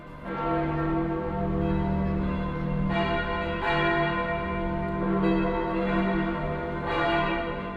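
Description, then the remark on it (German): The large church bells of St. Peter's in Rome ring continuously with rich, sustained overlapping tones, fresh strikes landing every second or so over a resonant hum. The pealing is full and steady, with no voices. “Über alle Länder der Christenheit klingt der Ruf der Petersglocken in Rom.”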